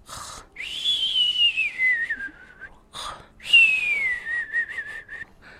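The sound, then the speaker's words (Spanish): A cartoon-style snoring sound effect for a story character who has fallen fast asleep in his little boat under the warm sun, repeating twice, each cycle a short rasping breath followed by a long whistle that slides downward in pitch, fairly loud with no talking. “Se oía roncar a Pablito.”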